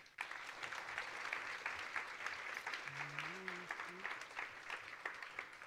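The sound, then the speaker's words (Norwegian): Audience applause for panel guests being introduced, a dense steady patter of many hands clapping at moderate loudness, with a brief murmur of a voice underneath partway through. “Gi dem en eh, varm applaus.”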